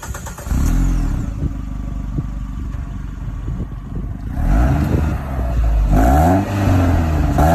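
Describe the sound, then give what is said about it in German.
A Peugeot 206 GT car engine starts, idles with a low rumble, then revs up in several rising and falling surges, growing louder toward the end, with no one speaking. “Aber erstmal hören wir uns den Sound an. Genau, und der klingt so.”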